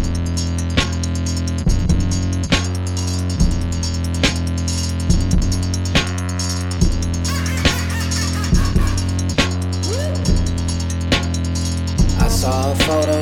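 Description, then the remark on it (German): A loud hip-hop track plays, with heavy droning bass, buzzy honking synth tones and punchy drum hits landing in a steady rhythm, with no vocals in this stretch. “ihr hört jetzt den Song … von …”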